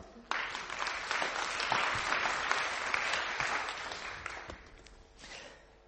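An audience breaks into steady applause, a dense wash of clapping that starts abruptly, holds strong for several seconds, then thins out and fades toward the end.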